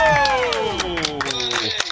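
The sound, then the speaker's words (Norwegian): Hands clap in an uneven, scattered patter over a sustained tone that slowly slides downward in pitch. “Ah, vi må klappe.”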